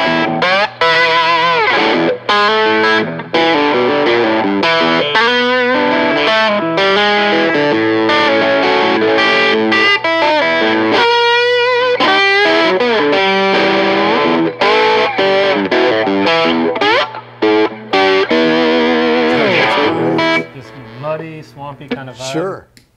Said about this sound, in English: Got the Danelectro. That goes into the Dane Electro Back Talk, which um, I love just for the, it, it's an echo where the echo is backwards. And so it just gives you that psychedelic.